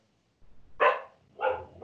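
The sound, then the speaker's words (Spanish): A small female dog at home barks sharply several times in quick succession, high-pitched yips with a brief pause between bursts. “Sí, tengo una perrita eh, acá en casa.”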